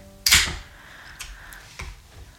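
A can or bottle of Ten Hands Brewing Little Violetta beer snaps open with a sharp crack and a brief fizzing hiss, followed by a couple of softer clicks and light handling noises.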